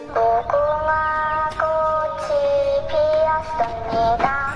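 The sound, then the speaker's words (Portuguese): A novelty alarm clock with a child's voice plays a sound from the Netflix series Squid Game: a high, childlike electronic voice singing a slow, drawn-out melody of sustained notes, loud, with nothing else around it. “Talvez este som da famosa série da Netflix, emitido de um despertador com características abomináveis”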